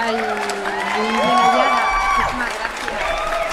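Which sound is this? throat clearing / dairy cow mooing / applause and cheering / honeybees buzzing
applause and cheering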